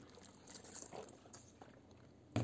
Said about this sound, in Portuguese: Calma aí, deixa eu tomar água.